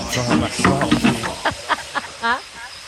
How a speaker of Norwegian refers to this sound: så skal jeg gli ned stanga, så skal jeg ta imot den etterpå.